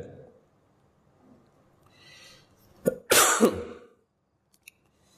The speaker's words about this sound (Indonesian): Mohon maaf ini agak masih masih batuk.